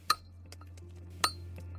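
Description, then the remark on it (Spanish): Two sharp, ringing metallic taps about a second apart, like a chisel striking stone, with a steady low hum and faint scattered clicks underneath. “Sí, es como si alguien estuviera picando una piedra con un cincel.”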